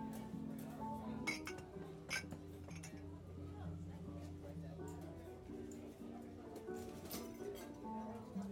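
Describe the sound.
Busy cafe ambience: glasses and cutlery clink repeatedly in sharp, scattered bursts over a steady bed of soft jazz music and indistinct murmuring voices.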